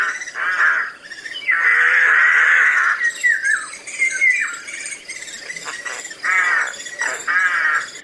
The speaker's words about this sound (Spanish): Deja que haga lo que quiera y ya iban a proseguir su camino cuando el grajo soltó un agudo chillido en la parte más distante del bosque.